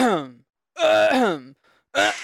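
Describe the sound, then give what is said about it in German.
A voice imitates a man groaning and retching as he vomits, in three strained, harmonic bursts, the middle one longest with a wavering pitch, followed by a short hoarse gag. “Auf einmal der musste kotzen.”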